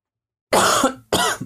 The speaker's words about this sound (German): So, ähm, an dieser Stelle muss ich kurz husten.